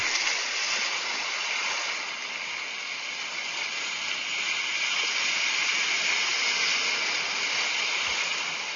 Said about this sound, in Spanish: Miren qué increíble, duró un poco más, pero sí me puso el sonido del mar. Escúchenlo.